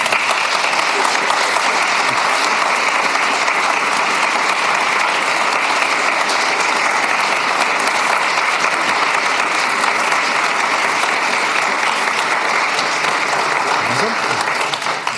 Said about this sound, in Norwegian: Og Jeg vil gjerne at vi skal klappe for han for det.